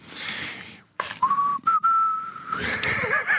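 A person whistles a slow, sustained melody up close, the clear tone holding long notes with a few short breaks, alone with no talking.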